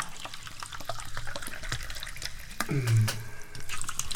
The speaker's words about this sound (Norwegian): Vi får med den deilige lyden av bobler og mm.